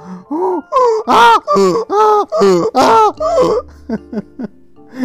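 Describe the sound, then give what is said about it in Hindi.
A person loudly imitates a donkey's bray, a rhythmic run of strained hee-haw cries rising and falling about six times, then trailing off into a few short, fading gasps. “ऐसे गधे जोर से बोलते हैं”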